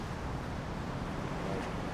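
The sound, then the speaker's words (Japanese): A car rolls along a narrow street, Nakamachi-dori, a drinking district, its low engine rumble and road noise holding steady and fairly loud throughout, with no talking over it. “車通ってきます”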